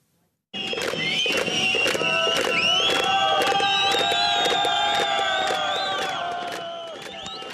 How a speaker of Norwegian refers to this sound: Dette er en lyd vi har hørt før. Mellom de store husene på Kretsjatek, den ukrainske hovedstaden Kivs paradegate. Gruvearbeidere som slår sine hjelmer i bakken mens de roper 'skam, skam'